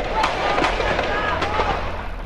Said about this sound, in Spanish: Estas son las imágenes y los sonidos de uno de los enfrentamientos más cruentos que ha tenido la Policía Federal con sicarios del cártel del Golfo en las calles de Reynosa, Tamaulipas.